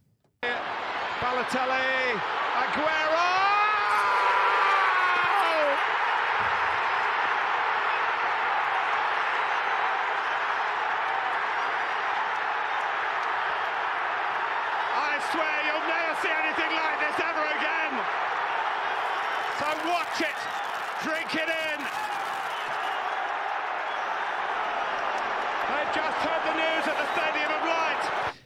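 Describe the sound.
A Premier League football intro jingle built on a loud, continuous roar of stadium crowd cheering, with whoops and shouted voices rising over the din for about half a minute.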